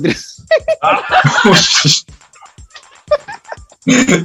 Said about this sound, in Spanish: Perro.